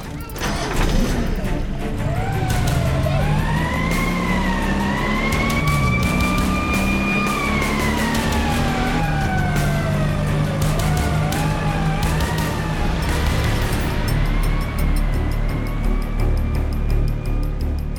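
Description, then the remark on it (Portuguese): A police car siren wails in long rising and falling sweeps, loud throughout, over a low rumble of engine and street noise. “A polícia tá levando o tio jardineiro para dentro do carro da polícia.”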